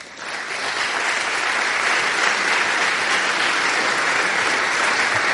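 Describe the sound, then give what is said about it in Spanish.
A large audience at an event in Madrid applauds steadily as a speaker is called up on stage, a dense wash of clapping that swells in over the first moment and holds strong and even for several seconds, with no voices standing out. “Un gran aplauso.”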